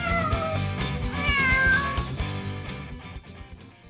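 A cat meows a few times in drawn-out, bending cries over a steady, full backdrop of sound, loud, then fades out toward the end.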